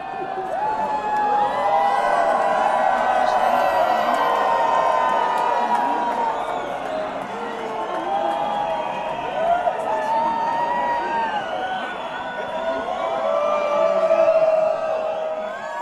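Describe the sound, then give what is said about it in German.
A Christopher Street Day (CSD) parade crowd screams and shouts together during a scream minute, a sustained, loud wall of overlapping voices, with high wavering yells and whoops rising and falling throughout. “Der gelten auch die darauffolgenden Schreie der Schreiminute.”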